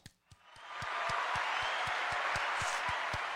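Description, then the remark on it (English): A round of applause for the Steelers swells up after a couple of soft taps and holds steady, a dense wash of clapping with a regular low thumping pulse running beneath it. “I guess I give him a round of applause. You give him a round of applause.”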